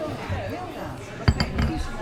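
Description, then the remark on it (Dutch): Beer glasses clink together in a quick toast, a sharp bright tap followed by a couple of lighter knocks, heard over the murmur of people talking. “Bier en cappuccino. Ja, we winnen hem Proost jongens.”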